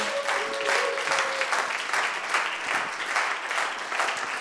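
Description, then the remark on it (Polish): A crowd applauds the Lord steadily and loudly, a dense wash of many hands clapping at an even level for several seconds, with a brief faint tone audible early on and no speech over it. “Un aplauso al Señor.”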